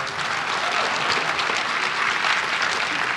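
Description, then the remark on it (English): Steady audience applause for the people who have presented at an event, a dense, continuous patter of many hands clapping at an even loudness for a few seconds, with no one speaking over it. “Let's hear it again for everybody who's presented so far.”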